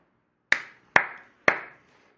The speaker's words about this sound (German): da gibt es aber direkt mal Applaus für hier.